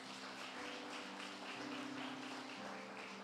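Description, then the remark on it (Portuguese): An audience claps together for the Lord Jesus during a Portuguese-language sermon, a dense, steady burst of applause lasting a few seconds, with low sustained keyboard chords holding underneath and no talking. “E se você crer, dê um aplauso ao Senhor Jesus.”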